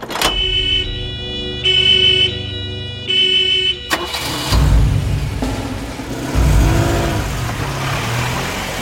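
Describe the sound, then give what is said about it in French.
A 403 car's engine turns over and revs loudly, surging as the car leaves the street without stopping, scared off by a passing police car, after a few seconds of a pulsing, repeated tonal sound. No one speaks. “Par malchance, une voiture de police qui passait par hasard dans cette rue effraie la 403, qui quitte les lieux sans jamais s'arrêter.”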